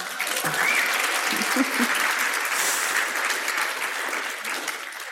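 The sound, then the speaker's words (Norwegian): A live audience at a stage event claps steadily for about five seconds to welcome a guest author, a dense, even wash of many hands at a constant level, with a faint voice or cheer briefly surfacing early on. “Vi kan klappe for det også.”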